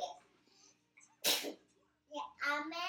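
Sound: sneeze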